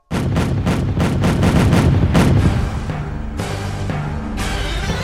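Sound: cannon fire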